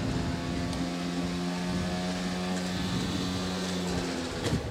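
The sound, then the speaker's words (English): Boat engines drone steadily, a continuous motor hum with several huge, fully equipped boats seemingly motoring past on a busy canal, no voices. “So everybody is going with these huge boats, completely equipped.”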